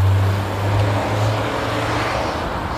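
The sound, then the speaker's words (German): A car, driven by an elderly woman, overtakes cyclists riding side by side on a road; its engine drones steadily with a low, even hum over a wash of road and wind noise, holding about the same loudness throughout with no voices. “Ja, und jetzt hat er Mühe, da vorbeizufahren.”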